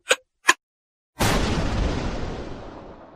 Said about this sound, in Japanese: 無情にも爆弾は爆発し、ブライアンは命を落とした。